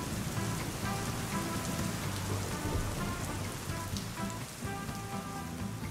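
Steady rain drums and patters on recording equipment set up outdoors in a patio, soaking it, a dense, even hiss of countless drops with occasional sharper taps, holding constant throughout with no voices.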